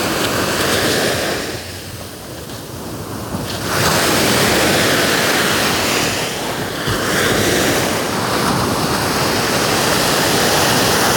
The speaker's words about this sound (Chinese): 你们有听到这个浪声吗？这个浪还是很大声